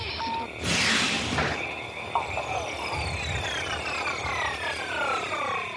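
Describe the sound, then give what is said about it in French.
A sci-fi miniaturizing machine effect: a burst of hissing noise, then a sustained mechanical whir with many sweeping, descending pitched tones as the machine powers up and shrinks something, moderately loud throughout. “Regardez, je vais revêtir ce déguisement de scarabée et nous allons euh, nous servir de cette formidable machine à miniaturiser que j'ai inventée.”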